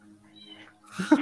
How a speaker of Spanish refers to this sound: La gatita canta. Es una chismosa.